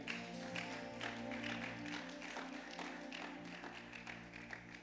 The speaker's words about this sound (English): Give the Lord a good clap right now.